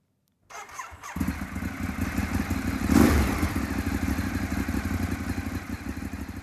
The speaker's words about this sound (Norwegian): Jeg har en eh, Ducati 848 Evo, fjorårets modell. En eh, superbike. Knallrød. Knallrød. Ja. Italiensk skal jo være rødt, helst.